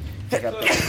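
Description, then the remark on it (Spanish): A single sharp sneeze bursts out, a quick intake followed by a hissy, breathy explosion, with a faint low hum underneath. “Salud.”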